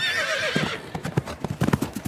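A horse whinnies with a high, wavering call, then hooves pound in a quick, irregular galloping rhythm, fairly loud, at a horse race on the Theresienwiese, a large field outside the city, before 40,000 people.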